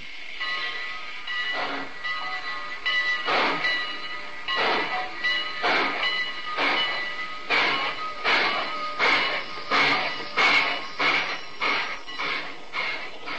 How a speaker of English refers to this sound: Wilbur Norris, first vice president of the Great Valley Railroad, and I were sitting in the observation car of a Great Valley train at Northbridge, Minnesota. We'd been up there a week on a case involving right of way and were finally heading home.